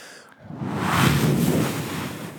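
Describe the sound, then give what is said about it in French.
A voice imitates an ocean wave with a breathy, rushing whoosh that swells over about a second and slowly fades, with no words spoken. “Je te donne un son que tu peux pas faire.”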